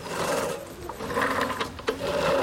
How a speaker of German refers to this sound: Aus den ungemähten Ecken zirpen Grillen.